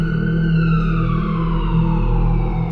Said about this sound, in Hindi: थोड़ी ही देर बाद रात के सन्नाटे में एम्बुलेंस के सायरन से चारों दिशाएं गूंज उठी